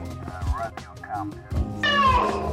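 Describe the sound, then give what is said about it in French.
A person does a vocal impression of a cat, giving a few gliding meows, two short and soft, then a longer, louder, drawn-out meow. “Oh putain, tu fais super bien le chat.”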